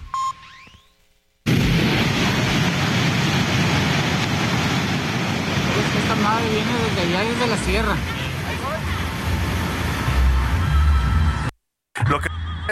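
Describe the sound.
Floodwater from the swollen Jalocote stream in Autlán de Navarro, southern Jalisco, rushes by in a loud, steady roar, carrying debris along, while people talk and call out over it. The roar cuts off abruptly near the end.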